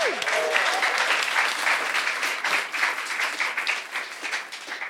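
An audience bursts into sustained applause, a dense wash of many hands clapping at a steady, fairly loud level for several seconds, with a brief rising whistle-like tone right at the start.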